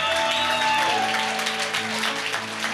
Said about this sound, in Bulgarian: А, някой трябва да ръкопляска на Бог.